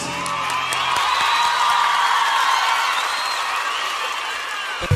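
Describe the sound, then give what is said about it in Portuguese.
Steady audience applause fills the whole stretch, a dense wash of many hands clapping at once with crowd noise and a few faint whoops mixed in, holding a constant level throughout. “Palmas para vocês.”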